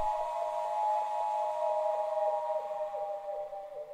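Several ceramic flutes sound together in sustained, breathy, whistle-like tones, layered into a steady chord with a gentle rhythmic pulsing, moderately loud and with no voices.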